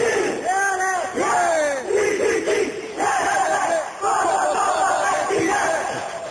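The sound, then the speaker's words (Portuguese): A studio audience at the start of a television program lets out a sustained, loud group shout, many voices yelling and whooping together in a continuous roar of cheering that swells and dips over several seconds. “Y, yo creo que no podríamos empezar un programa sin hacer un grito, un grito grande así. A ver, atención barra.”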